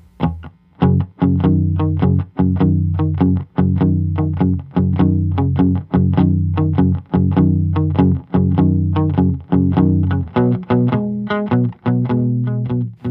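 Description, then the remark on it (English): A blues song in a boogie shuffle rhythm, with loud, distorted guitar chugging in a rolling, swung rhythm and sharp repeated attacks marking a clear, danceable beat; no voices. “This particular rhythm is called a boogie shuffle.”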